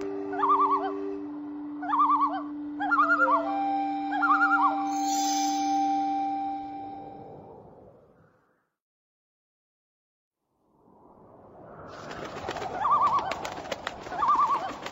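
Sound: bird calling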